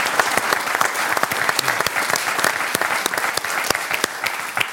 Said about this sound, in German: Applaus.